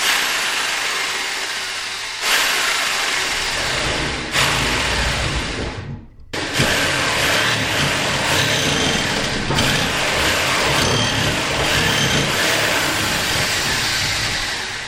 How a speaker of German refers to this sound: Die Löcher brauche ich, damit ich mit meiner neuen Stichsäge in den Pudding reinkomme. Verstehst du? Und dann säge ich kleine Stückchen aus dem Pudding raus und die können wir dann essen. Achtung, jetzt kommt die Stichsäge.